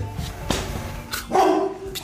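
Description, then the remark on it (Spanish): A dog named Dogo barks a few times after smelling a man, sharp bursts at uneven intervals with a louder, more sustained bark near the middle, over faint background noise. “Ay, ay, ay, ese es Dogo. Ese es Doguito. Ey, Dogo. Cálmese”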